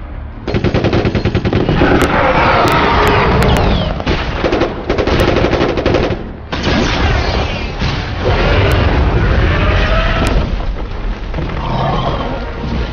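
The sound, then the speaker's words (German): Loud, relentless automatic gunfire rattles on almost nonstop in dense rapid bursts, fired at a hybrid creature that is partly raptor, with a brief pause midway and shrill screeching cries mixed into the barrage. “Der Hybrid muss von unendlich vielen Kugeln getroffen sein, aber er schafft es trotzdem, in den dichten Dschungel zu flüchten.”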